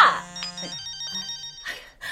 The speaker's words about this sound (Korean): 아유, 얘네 전화나 얼른 받아라. 사무실인가 본데.